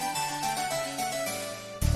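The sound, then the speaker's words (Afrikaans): A mobile phone ringtone signalling an incoming call plays a bright, steady electronic melody of sustained tones for about two seconds, loud, ending in a burst of louder, lower-pitched notes. No one speaks. “Ooh, dis my selfoon se luidtoon.”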